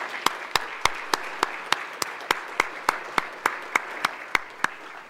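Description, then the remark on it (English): An audience applauds steadily for standing parents and families who have fostered and adopted, a dense wash of clapping with one sharp, evenly paced clap cutting through about three times a second, holding at an even level with no voices. “Just want to give them a round of applause.”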